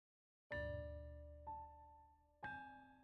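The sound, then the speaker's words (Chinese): A school bell chime rings for the end of class: three clear, resonant tones struck about a second apart, each with a bright ringing overtone that slowly fades. No one speaks. “随着下课铃声的响起，连假也跟着来临。”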